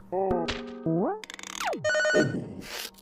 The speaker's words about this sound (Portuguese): Caminhando por esse túnel, ele chega numa sala muito estranha. Tem um computador e um teclado gigante, e pisando nas teclas, cara, cada tecla faz um barulho bem específico.